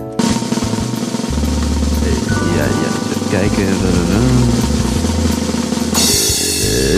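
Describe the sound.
A loud, sustained drumroll sound effect rumbles for about six seconds and ends with a bright cymbal crash, played as a draw is about to be made, while a voice speaks briefly over it.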